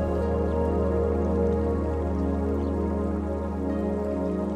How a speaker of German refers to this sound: Es ist auch hörbar, wie das Wasser an größeren Steinbrocken vorbeiströmt. Das kontinuierliche Rauschen ist beruhigend, meditativ und du konzentrierst dich ganz darauf.